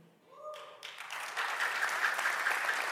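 A large crowd breaks into applause for the staff team, the 'Dream Team', who help make the Sunday gathering happen; the applause swells quickly and holds as a dense, steady roar of many hands clapping together without a pause.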